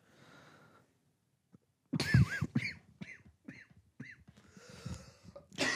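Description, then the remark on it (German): A loud coughing fit from a person with a cough, at home: one harsh burst followed by a rapid string of shorter, raspy coughs with strained vocal catches, after a few seconds of quiet background. “hat äh, Husten und bringt hier Keime mit in mein Haus, damit mein äh, ungeborenes Kind.”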